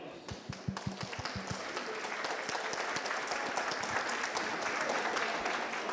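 An audience breaks into applause, beginning with a few separate claps that quickly swell into steady, dense clapping from many hands, holding at a fairly loud level throughout.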